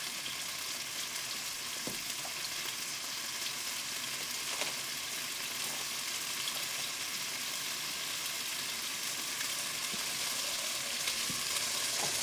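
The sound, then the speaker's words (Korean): Steady, dense sizzling of chicken feet frying in a hot pan, with scattered sharp pops and spatters throughout, continuous for the whole stretch, no voices. “닭 타지 않는 기사에 힘들어지면서 예상대로 엄청 많이 튀네요.”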